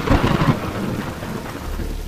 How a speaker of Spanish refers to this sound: cuando en el cine suena el trueno.